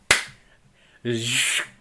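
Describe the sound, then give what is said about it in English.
A single sharp hand slap rings out loud, its crack decaying quickly, followed after a short pause by a brief breathy voiced sound. “i'm gonna take away a snap and a slap”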